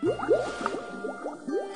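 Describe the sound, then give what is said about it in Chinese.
A quick series of bright, rising bubbly blips and pops with a wet, squishy quality, coming in an uneven rhythm over a soft watery background, with no talking. “比河马宝宝小的是乌龟宝宝，比乌龟宝宝小的是什么呢？是泡泡。”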